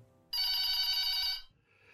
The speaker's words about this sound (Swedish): Framåt halv tre-tiden är han redo att logga ut. Men då ringer telefonen.